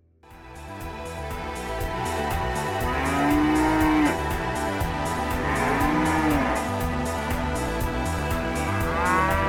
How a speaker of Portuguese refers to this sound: Era uma espécie de eletrônico misturado com mugidos, muito alta.